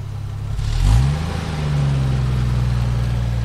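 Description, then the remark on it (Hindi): A car engine revs up sharply, then settles into a steady, rumbling drone as the vehicle pulls away, fairly loud with no talking. “ये गाड़ी फिर से यहाँ पे आएगी”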